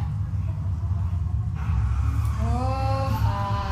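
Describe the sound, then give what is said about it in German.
A steady engine rumble from a game car, rising in pitch as it revs and pulls away, with harmonic tones climbing in the second half. No one speaks. “Okay, Dankeschön fürs Auto.”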